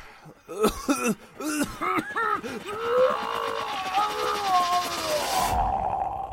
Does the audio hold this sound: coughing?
yes